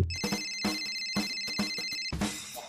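A short theme jingle built around a telephone ringtone: bright, sustained ringing tones over a steady, punchy beat, loud, with no voices.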